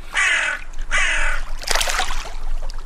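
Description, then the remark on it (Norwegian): Two loud, harsh crow caws ring out in quick succession by Lake Mjøsa in Norway, followed by a burst of rougher, overlapping cawing against a faint outdoor background. “Og nå, når du har eh, hørt på disse kråkene ved Mjøsa”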